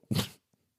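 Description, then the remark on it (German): A single sharp, explosive sneeze bursts out loud, lasting a fraction of a second, followed by a faint breathy sound and then quiet. “Gesundheit?”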